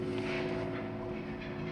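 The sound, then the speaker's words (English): A steady, droning hum of an airplane passing overhead, its engine tone holding even and fairly loud throughout with no other sounds or voices. “You think it might be a little bit boring for me to sit in that studio all the time, but there are no airplanes in my little orange office.”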